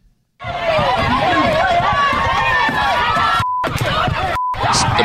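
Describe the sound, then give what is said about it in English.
A loud, agitated crowd shouts and yells while beating on a man's stopped car, thuds and bangs pounding on the car's body, continuous and chaotic, broken twice by brief censor beeps. “beating on his car.”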